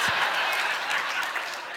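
An audience claps in a steady, dense burst of applause that holds at an even, fairly loud level for the whole moment, with no voices standing out.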